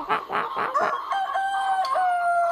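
A chicken lets out a few quick, loud clucking calls, then a long drawn-out crow that holds steady and slowly falls in pitch, clear with no talking.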